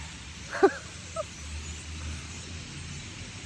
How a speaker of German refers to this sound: wir sind am Meer, das sind die Möwen. Da oben im Baum geht es richtig rund.